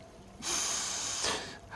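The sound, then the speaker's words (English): An airy sniff of a substance drawn in through the nose for about a second, with a short sharper pull near the end; no one speaks. “Here, Your Excellency. Sniff this.”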